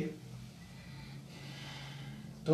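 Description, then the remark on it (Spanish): Soft, steady breathing through the nose during a hip-circle exercise, with airy inhales and exhales flowing in a slow, continuous rhythm and brief pauses between breaths, fairly quiet. “la respiración es por la nariz.”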